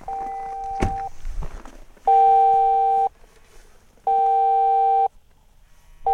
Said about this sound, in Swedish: Och vad är det som händer nu? Ja, nu får jag ett individanrop här från han som är insatschef på uppdraget. Så jag ska svara här nu.